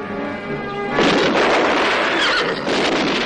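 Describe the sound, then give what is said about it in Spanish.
A horse gives a loud, drawn-out whinny as riders mount their horses and ride off after several gunshots, then a dense, noisy rush of clattering and rumbling takes over for the rest of the moment, with no voices. “Tras varios disparos se suben a sus caballos y se marchan.”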